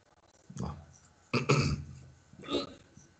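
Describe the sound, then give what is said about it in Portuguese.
Three abrupt, jolting hiccups from a person having a bout of strong hiccups, spaced roughly a second apart, each a short voiced gulp with a quick fade and quiet between. “Os meus soluços são muito fortes.”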